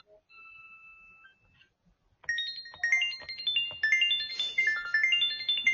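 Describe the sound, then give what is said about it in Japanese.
A pachinko jackpot confirmation sound effect: a sustained high electronic tone, a short pause, then a loud burst of bright cascading synth arpeggios that climb and sparkle in rapid, celebratory runs. “パチンコで脳汁が出る確定音を考えよう”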